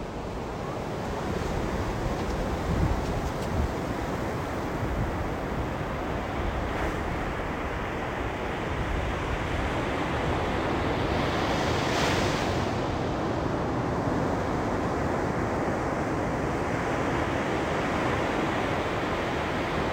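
Sea waves of the South China Sea, China, breaking on the shore in a steady, full roar, with a brighter surge of foam around the middle and a constant wind rush underneath; no voices.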